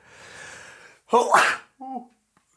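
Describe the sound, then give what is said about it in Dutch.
A single loud sneeze: a long breathy intake, then a sharp explosive burst, followed by a brief voiced sound as it fades. “Gezondheid.”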